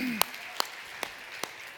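Sparse applause, just four distinct hand claps at a slow, steady pace, fairly quiet and sharp, with no talking over them, celebrating a young man's preaching the week before.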